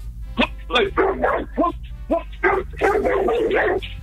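A small female dog named Raya barks repeatedly in quick, sharp yaps as a greeting, a rapid burst of high-pitched barks spread across several seconds with a steady low hum underneath.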